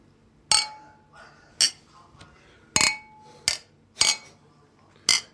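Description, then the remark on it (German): Beer glasses clink together in a toast, about six sharp, bright knocks spaced irregularly over several seconds, fairly loud, some leaving a brief glassy ring, with faint murmuring between. “Sowohl. Prost.”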